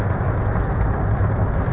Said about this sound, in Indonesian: Uh, sebelumnya mohon maaf nih kalau ada suara gemericik hujan karena di luar sangat ya hujan lah.